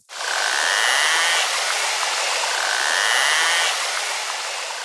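A marine animal's hunting clicks packed so tightly they fuse into one loud, continuous rasping buzz, holding steady for about five seconds, alone with no voices.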